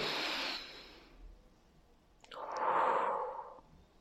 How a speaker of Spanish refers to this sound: vas a poner tus manos sobre tus piernas y vas a respirar profundo, ¿ok? Conmigo.